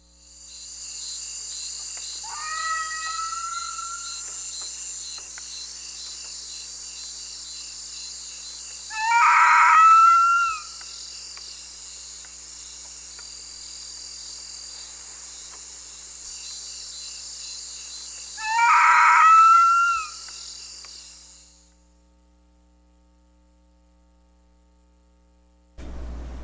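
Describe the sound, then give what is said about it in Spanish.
Three separate bursts of crab-eating fox (Cerdocyon thous) calls, short harsh yelping notes spaced several seconds apart, ring out clearly over a steady, high chorus of crickets that runs nearly the whole time. “Escuchémosla. Crab Eating Fox, Cerdocyon Thus.”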